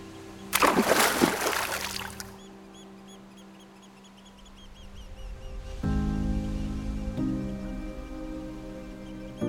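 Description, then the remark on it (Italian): A loud burst of splashing ocean water and waves lasts about two seconds over a soft sustained tone, then fades into a steady musical drone that swells louder near the end. “Per scoprirlo, dobbiamo riavvolgere il nastro, fidarci dell'oceano e lasciarci guidare dalle onde.”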